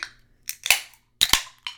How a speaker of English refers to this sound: Oh yeah. Crack open a, li- a, little beer. So cheers. cheers. cheers.